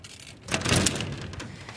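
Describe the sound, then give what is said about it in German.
The stuck door of a neighbour's plastic greenhouse is tugged open on a day with a cold wind, giving a harsh, scraping rattle that swells for about half a second, then settles into a softer, lingering rustle. “Er hat hier so ein und die Tür klemmt.”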